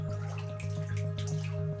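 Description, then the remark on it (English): Water from turned-on faucets runs steadily into a filling bathtub, a continuous splashing pour of quadruple filtered water with scattered drips and a low, steady hum underneath, moderately loud. “I hear the faucets turning and the quadruple filtered water splash into the tub.”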